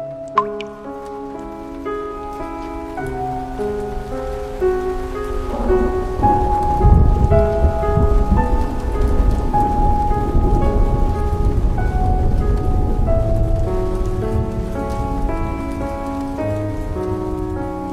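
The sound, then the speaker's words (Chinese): Steady rain falling outside a house, pattering on a surface, a dense, even hiss of drops that thickens after the first few seconds, with soft, sustained piano-like music playing over it and no one speaking. “此刻，我想把收藏的雨水读给你听”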